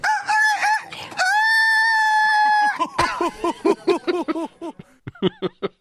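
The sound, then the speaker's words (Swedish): A human voice imitates a rooster, starting with a loud, drawn-out crow and then breaking into a quick run of choppy clucking notes, with no other talk. “Eh, nej men, eh, är det, ja, det är ju en tupp är det ju.”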